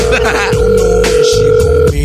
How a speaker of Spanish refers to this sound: Oye, contesta el teléfono, hombre.